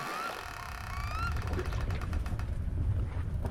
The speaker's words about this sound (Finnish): Saunan ovi aukeaa tutun narahduksen saattelemana.